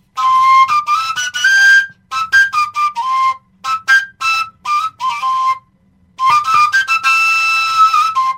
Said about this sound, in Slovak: E, na koncovke to môžeš aj takto.